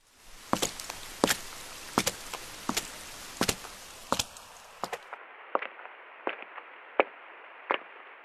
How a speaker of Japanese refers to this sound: 普通にその雨の中を歩いた音っていうのを作っていただきます。で、それがだんだん電話の先になるとこういう加工になりますよっていうのを作ってみたので、これちょっと聞いていただきたいなと思います。